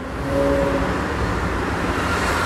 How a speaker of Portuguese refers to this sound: Aqui é bom dia e eu devo dizer que é o pior horário do dia para gravar qualquer coisa para esse podcast, porque os carros, as, as lanchas, as motos, os jet skis estão passando. Às vezes eu me pergunto se é só isso que tá passando, porque tem, ó.